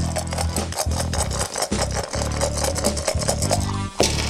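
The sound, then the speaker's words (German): Dice rattle and clatter inside a dice cup during a dice game, shaken steadily for several seconds in a busy, rough rasping sound with brief pauses between shakes, then a final sharp knock at the end. “Du schwingst schon den Würfelbecher.”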